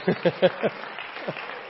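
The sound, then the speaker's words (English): A quick run of four rhythmic claps from a church audience during a sermon, then a single softer clap after a short pause, with a faint murmur underneath. “I love people clapping while I'm preaching. Amen. So you just clap.”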